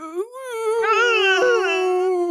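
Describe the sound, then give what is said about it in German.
A human voice imitates agonized whimpering, a sustained high, tremulous whine lasting a couple of seconds with wavering pitch, fairly loud, with no other sounds around it. “Qualvolles Winseln.”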